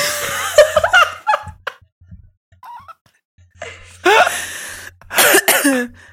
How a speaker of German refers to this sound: okay, jetzt muss ich husten, Moment.